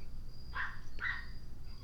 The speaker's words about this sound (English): Fuck that dog. Fuck that dog. You guys hear that dog? Fuck him.